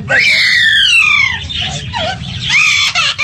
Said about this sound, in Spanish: Se los juro por mi madre, es un loro. Está llorando como un niño porque ¡Ay, le pegaron.